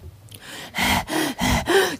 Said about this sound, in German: Keuchend schnappte ich nach Luft.